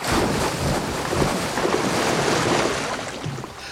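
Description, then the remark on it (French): Heavy, surging water churns and rushes steadily for several seconds at the edge of the Pacific Ocean, a loud, dense wash like a large sea creature displacing the sea, with a windy roar and no voices. “Hmm, une bestiole qui provoque d'aussi gros déplacements d'eau, ça doit être une baleine ou un cachalot.”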